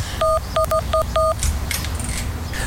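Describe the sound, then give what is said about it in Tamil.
Five quick electronic keypad beeps as an eight-digit code is punched in to open a house door, uneven in rhythm, followed by a few faint clicks over a low background hum. “நான் உன் ஃபோனுக்கு மெசேஜ் அனுப்பியிருக்கேன் பாரு அந்த எயிட் டிஜிட் நம்பரை போட்டு உள்ள போயிரு”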